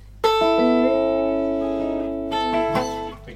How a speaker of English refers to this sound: Probably the most common sort of country lick played by people who aren't really into country.